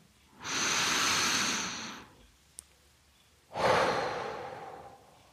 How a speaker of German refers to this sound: Hast du eigentlich heute schon tief geatmet? Mach mal. Lass uns mal zusammen tief atmen. Ich puste auch nicht ins Mikrofon, weil wir halten so oft den Atem an.